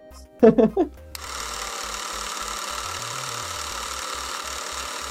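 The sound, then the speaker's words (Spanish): A brief voice at the start gives way to a steady, rumbling engine drone with a rhythmic low chugging as a semi-trailer truck passes by outside, holding at a moderate level to the end. “Ay, no, era un trailer pasando, güey.”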